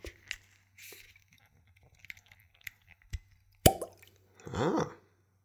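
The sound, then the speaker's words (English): A cork pops sharply out of a spirit bottle, followed by a brief squeaky rubbing of the stopper. Faint clicks and handling rustles come before it, with no talking. “And now let's see if we get a pop.”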